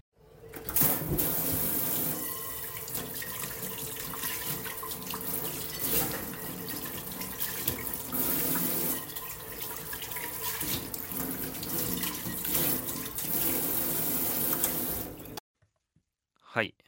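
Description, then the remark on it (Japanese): Hot water from a gas water heater runs from the tap and splashes steadily onto a small round metal frying pan being washed in a kitchen sink at noon in winter, with a wobbling, warbling resonance, for about fifteen seconds before stopping. “お昼12時台所で洗い物してました冬場なのでガス湯沸かし器のお湯で丸い小さめのフライパンを洗っていたところふよんふよんと不思議な音がしたので撮りました”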